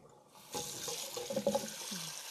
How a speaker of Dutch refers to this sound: moet hm, even wat koud water op de eieren.